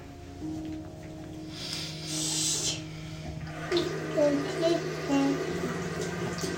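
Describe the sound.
Water runs into a bath with a steady hiss that swells briefly, while a low hum continues underneath and soft voices and a child's sounds come in toward the end.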